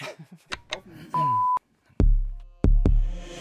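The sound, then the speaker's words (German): A single short, steady electronic alarm beep sounds after a brief stretch of voice-like murmuring, then gives way to two loud, ringing metallic knocks. “Kleiner Alarm vorne dran.”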